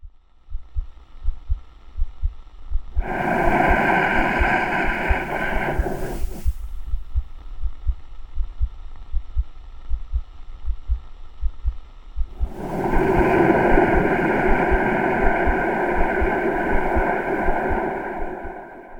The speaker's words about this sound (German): Es sind Atmungen, Herzschläge und Geräusche aus der Magengrube.